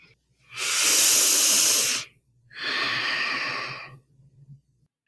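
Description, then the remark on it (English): A deep, drawn-out inhale for emphasis, loud and airy like a hiss, followed after a brief pause by a second slightly softer breath of similar length. No one speaks. “I read, yes, I read that uh, for emphasis, they will just really deeply inhale.”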